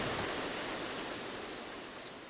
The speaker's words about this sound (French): Je rêve ou alors il pleut.